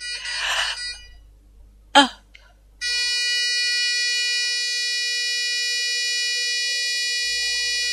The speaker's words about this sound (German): Ein lautes Pfeifen aus dem Gerät neben ihrem Bett rief rennende Ärzte und Schwestern zusammen.